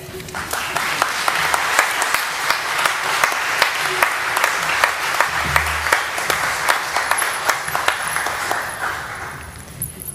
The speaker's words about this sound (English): if you could just give her a round of applause, I'd really appreciate it.